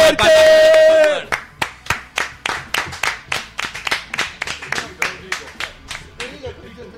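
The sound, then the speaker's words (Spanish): A brief sustained cheer or shout, then steady rhythmic clapping, about three sharp claps per second, loud and evenly paced for several seconds, slowly tapering off. “Un aplauso para,”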